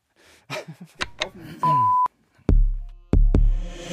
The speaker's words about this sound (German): Kleiner Alarm vorne dran. Kleiner Klacker. Eine ganz runde noch. Vorne war ein Geräusch.